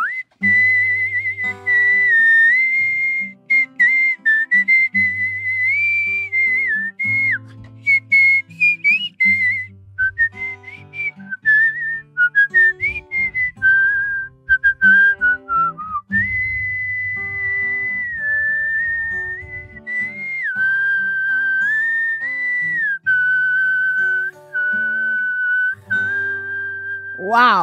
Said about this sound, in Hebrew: תעשה לי רק את השריקה בסוף, חייב, כל תוכנית בסוף שריקה.